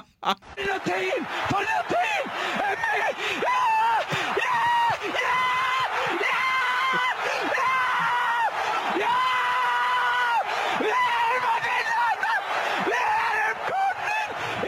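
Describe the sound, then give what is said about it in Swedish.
A sports commentator screams at full pitch as Iceland scores a football goal, long strained high-pitched cries held and repeated without pause, loud, with a roaring crowd faintly underneath. “Men eh, det, eh, det blev en grej att han lät ju typ som en gris som slaktas när, eh, när Island gör mål i fotboll.”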